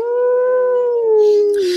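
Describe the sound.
A single long wolf howl holds a steady, clear pitch before sliding slightly downward at the end. It's loud, with no talking and only a little breathy noise near the finish.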